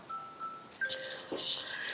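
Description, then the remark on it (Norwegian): A soft phone bedtime reminder alert tone plays a few steady electronic notes in sequence, fairly quiet, over faint background noise with no one talking. “Nå sa, telefonen din at du må gå og legge deg.”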